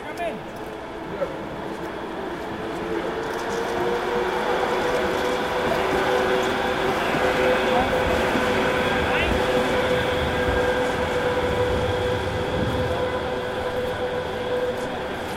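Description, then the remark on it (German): A tram rolls past on wet rails between the Roland and the town hall in Bremen, with a steady rushing hiss and a faint metallic whine, building after the first couple of seconds and holding at an even loudness throughout. “Zwischen Roland und Rathaus rauscht immer mal wieder eine Straßenbahn.”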